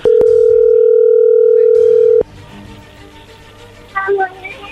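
A steady, loud dial tone drones for about two seconds, then cuts off as the call connects, followed by quiet line noise and a brief burst of faint chirpy tones.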